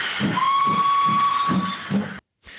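A steam whistle shrieks over a hissing blast of steam, with a rhythmic low chuffing pulsing beneath it, then cuts off abruptly into silence.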